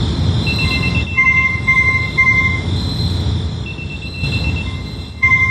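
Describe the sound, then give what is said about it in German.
Many e-scooters on a site, all suddenly switched on at once with headlights on, their horns blaring: shrill electronic tones beeping and overlapping in uneven bursts over a dense wash of noise, loud and continuous throughout, with no one speaking. “alle Roller eingeschaltet, die, die, die Scheinwerfer und auch die Hupen gingen an und 15 Minuten lang gab es da Mordsradau auf dem Gelände.”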